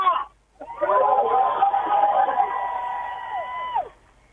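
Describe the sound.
A crowd cheers loudly outdoors in a square in the evening, many young people and parents with children applauding and acclaiming a speaker on a podium made of a pallet, voices merging into a sustained roar of shouting that lasts several seconds before dropping away abruptly.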